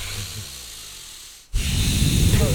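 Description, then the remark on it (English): Forceful, hissing breaths: a long, steady exhale, a brief pause, then a sharper and louder rush of air, like someone doing a vigorous breathing exercise. No talking. “i'm doing those breaths and i'll, I'll be in the car you just thinking about it, like my hands are like going on my thigh because yeah.”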